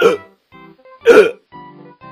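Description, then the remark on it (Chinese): Two sharp, loud hiccup sounds about a second apart, seemingly imitated by a voice as a kitten's hiccups after eating cake cream, with softer, low hummed vocal tones filling the gaps between them. “小猫打扮完，可还是不停的打嗝。”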